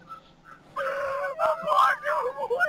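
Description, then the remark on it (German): Women scream at a window in loud, high-pitched, wavering cries that start abruptly after a quiet moment and continue in overlapping bursts, sounding distressed. “Die Frauen schreien übelst krass am Fenster rum.”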